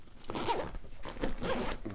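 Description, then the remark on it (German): A sturdy, good-quality zipper on a backpack pocket is pulled closed in a few quick, raspy strokes, fairly loud, with no talking. “Auch die machen wir wieder zu. Reißverschlüsse übrigens schön also es vernünftig ist, vernünftige Qualität.”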